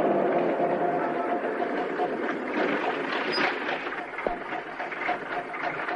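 A bus engine idles at a bus stop as a woman gets off, a steady, continuous mechanical rumble and hum, even in loudness, with a brief faint click partway through and no voices.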